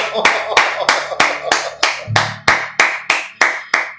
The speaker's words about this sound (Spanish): ¡Aplausos!